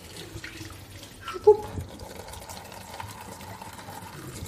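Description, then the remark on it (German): Water used to rinse tea pours steadily into a sink, a splashy running gurgle with a brief louder clink near the start, continuing at moderate volume with no voices. “So, jetzt sieht man schon, es ist schon so ein bisschen durchgespült. Und jetzt gießen wir das einfach unterrühren in den Ausguss.”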